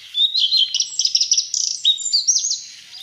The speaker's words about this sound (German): Was für mich auch immer wieder interessant ist, der, ich finde, der klingt, und das habe ich lange Zeit gedacht, der klingt ein bisschen wie ein Buchfink, der seine Strophe nicht zu Ende macht.